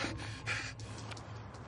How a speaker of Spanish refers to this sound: Se acerca a un coche y se esconde metiéndose dentro del maletero. El vigilante se acerca corriendo. El profesor respira aceleradamente al escuchar que se acerca.